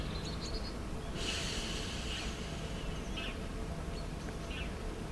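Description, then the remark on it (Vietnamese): A single slow, airy inhale through the right nostril during an alternate-nostril breathing exercise, soft, a breathy hiss lasting about a second over a steady low background hum, followed by quieter faint breath sounds. “Hít vào bằng mũi phải.”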